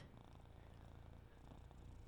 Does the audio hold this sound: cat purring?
yes